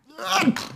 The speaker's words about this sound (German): Gesundheit. Gesundheit.